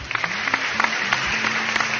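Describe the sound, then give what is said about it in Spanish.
An audience on the Manos a la Obra Show claps steadily for a special guest, a dense, continuous patter of many hands with faint crowd noise underneath and a few sharper claps standing out. “Un aplauso para él.”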